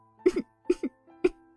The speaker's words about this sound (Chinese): 柴卫眉头紧皱，咽下口中的红酒后，立刻咳嗽了两声。